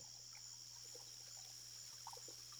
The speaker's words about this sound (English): Absent of sounds from traffic or other human activity. Just the gentle trickling of the irrigation canals and the chirping of crickets in the distance.